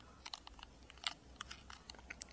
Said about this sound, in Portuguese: Eu tô segurando o gravador de voz aqui na mão como se fosse um microfone falando nele. Eu tô com um fone de ouvido me ouvindo. Eu vou mexer a mão no gravador e vai dar pra ouvir.